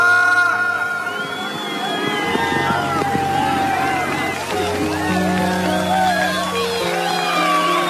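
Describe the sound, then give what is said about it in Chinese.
Wedding guests at a ceremony cheer and clap together for the bride and groom in a dense, steady wave of crowd noise, with overlapping voices and excited high-pitched shouts running loudly through the whole stretch. “恭喜他们，大家鼓掌！”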